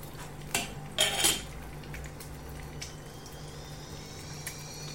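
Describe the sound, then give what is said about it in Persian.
Metal utensils clatter against a pan in a few sharp bursts as an omelette is cooked, with a steady low hum and faint sizzling in the background. “چی میپزی؟ املت با رسپی سراشپز”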